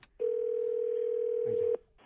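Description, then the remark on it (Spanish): A telephone rings with one loud, steady electronic tone that holds for about a second and a half, then cuts off abruptly. It is clear, with no voices over it. “No, sonó mi teléfono.”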